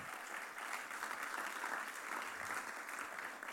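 Sustained audience applause welcoming a speaker onto the stage at the start of the Summer Celebrations, a dense, steady wash of many hands clapping at once without a break, with no voices standing out above it.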